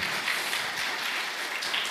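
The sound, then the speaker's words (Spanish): A worship audience applauds the Lord with dense, steady clapping that blends into a continuous crackling wash, holding at an even level for the whole stretch with no voices over it. “Cuando uno desata la fe, dale ese aplauso al Rey, sí Señor.”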